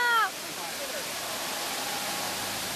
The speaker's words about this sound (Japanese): 川床涼しげな水の音がより近くに聞こえましたよね贅沢な空間でとても羨ましくなりました